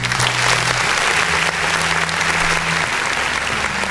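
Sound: applause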